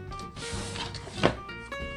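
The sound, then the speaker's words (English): A drawer full of fabric slides and shuts with a single dull thunk midway, surrounded by soft rustling and handling noises. “I'll oh, apparently have another complete drawer of fabric, which is full.”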